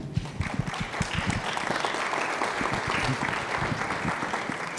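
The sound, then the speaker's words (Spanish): An audience breaks into steady applause in thanks to someone who spoke before them at the microphone, a dense wash of many hands clapping at an even level for about five seconds, with no voices standing out. “Los aplaudimos siempre a todos en agradecimiento porque hay que tener valor, ¿verdad?, para decir frente a la congregación y en el micrófono esto.”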